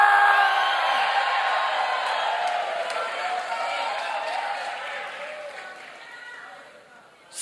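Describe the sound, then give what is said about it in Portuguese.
A large crowd gives a victory shout at a preacher's call, roaring and cheering continuously in a loud, sustained wave of shouting voices, slowly easing off before a sudden burst at the very end. “Dá um grito de vitória!”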